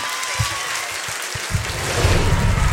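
An audience at an evening event for radio station Active's 10th anniversary in Rouen applauds, a dense wash of clapping that starts steady and swells louder toward the end, with a few low thumps mixed in.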